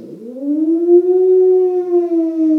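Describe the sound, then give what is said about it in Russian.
A wailing siren rises from a low pitch and holds a steady, loud howl with strong harmonics, sounding alone without any talking. “Вот эта сирена, она взята оттуда.”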